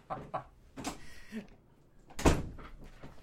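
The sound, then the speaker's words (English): A door is opened with a creaking, scraping rush of noise as someone walks out, then shut with a solid thump a second later; the sounds are moderately loud, with faint murmurs around them. “I'm gonna walk out the door, dears.”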